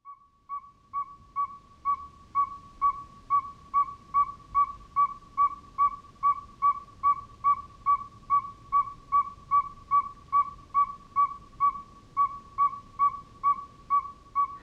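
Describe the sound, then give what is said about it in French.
A northern saw-whet owl gives a long, steady series of clear, whistled toots, roughly two per second, over a soft low rumble of background noise. “Alors ça, c'est une petite nyctale.”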